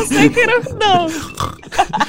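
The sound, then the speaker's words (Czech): A person imitates a pig with a few quick, nasal oinks and squeals, loud, each one short with a gliding, voice-like pitch. “Já jsem prasekový.”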